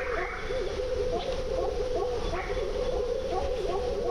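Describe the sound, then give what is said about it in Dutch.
A dense, steady chorus of birds calling, with what may be frogs croaking, short repeated calls overlapping continuously in the background with no one speaking. “Ik denk eh, meerdere soorten kikkers. Kikkers en vogels, denk ik vooral.”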